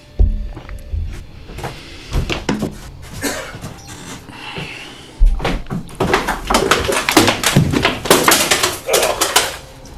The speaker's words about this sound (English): Uh, I just banged my head really hard. Uh, well, definitely have a gonna have a concussion.